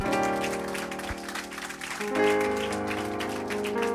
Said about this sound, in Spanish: ¿Por qué no le doy un fuerte aplauso al Señor?